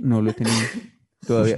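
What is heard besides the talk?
sneeze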